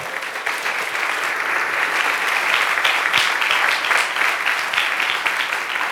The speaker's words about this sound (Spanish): Dele fuerte ese aplauso al Señor.